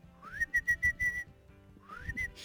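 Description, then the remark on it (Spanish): A person whistles an eerie tune imitating a legendary whistler heard in the mountains of Peru: a rising glide into a series of short repeated notes, a pause, then another rising glide and a held note, fairly quiet with no talking. “Gente que está en la montaña, tipo en Perú, y hay un silbido que hace de tipo”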